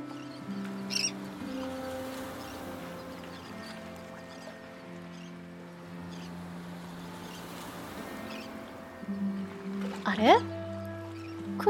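Birds chirp in short, scattered calls outdoors, with one brighter rising chirp near the end, all set against a steady, droning background hum.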